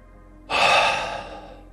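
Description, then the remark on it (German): A single loud, breathy exhale, done deliberately to come to rest, starts abruptly after a short quiet moment and slowly fades out over about a second, like a long, deliberate sigh with no talking. “Ich atme absichtlich auch laut dazu aus, um einfach mal, komm jetzt mal ein bisschen zur Ruhe.”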